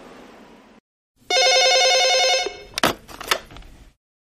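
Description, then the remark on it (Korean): A telephone rings with one loud, trilling burst lasting about a second, after a faint hiss and short silence, as a call comes in from Jirisan (Jiri Mountain). Sharp clattering clicks follow, like a handset being lifted. “1년 만에 오늘 또 지리산에서 전화가 온 겁니다.”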